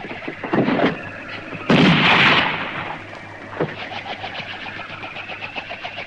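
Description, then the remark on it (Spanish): A loud, sharp revolver shot rings out in a street and trails off briefly, with a couple of fainter cracks around it over a low, steady rumble, as Teo fires and misses. No one speaks. “Teo yerra el disparo y el joven arroja otro.”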